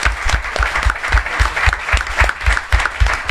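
An audience claps steadily for a few seconds, a dense, even patter of many hands with no voices standing out above it.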